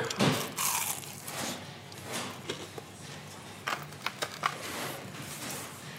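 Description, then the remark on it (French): A loud crunchy bite into a piece of chicken dipped in a dip at the start, followed by several seconds of crisp, irregular chewing crackles and soft mouth sounds, with no talking. “morceau et je le trempe. Voilà, c'est ça, faut le tremper, hein, c'est du dip.”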